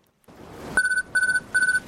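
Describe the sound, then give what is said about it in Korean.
A PDA alarm goes off on the beach in front of a hotel in Guam at sunset: three short bursts of high electronic beeping, each a quick trill of rapid pulses, repeating at a steady rhythm over a low background hiss. “본격적으로 호텔 앞 해변에 자리를 잡고 석양을 감상하려는데 PDA의 알람이 울렸다.”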